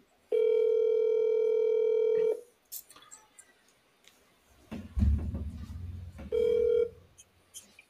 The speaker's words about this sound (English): Let's make a quick. Let's make a quick call. Okay. Um, there we go. Let's see if she answers.